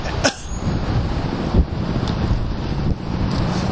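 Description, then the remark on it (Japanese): Steady, loud outdoor rumble of wind buffeting a microphone while riding a bicycle, mixed with passing traffic noise, with a few brief thumps and bumps scattered throughout while moving. “だいぶうるさいんですよね、うん、騒音がすごいっていうのが一つ”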